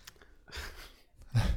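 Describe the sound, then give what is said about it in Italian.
A voice mimics the magnet of a Logitech keyboard snapping onto an iPad, with two breathy, hissing bursts, the second louder and ending in a low thump, separated by a short pause, with no words spoken. “Tipico suono, il suono di, un magnete.”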